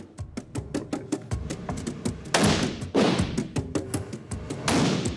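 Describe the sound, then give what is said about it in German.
Three loud, sharp live-ammunition gunshots fired by a hunting-course participant at a shooting range simulating a driven wild boar hunt ring out at uneven intervals, each with a short echoing decay, over a busy background of quicker, fainter cracks and taps. No one speaks. “Nur zwei der benötigten drei Schüsse im Zielbereich.”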